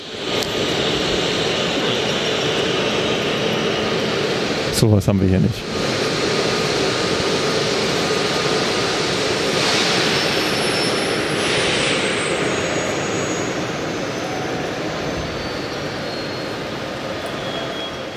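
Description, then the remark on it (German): An Alex regional train arriving from Hof pulls into a station hall with a loud, steady, echoing roar that fills the whole stretch, easing slightly near the end; a voice speaks briefly near the start. “Ja, der Zug, der gerade so Krach gemacht hat, war hier der ankommende Alex.”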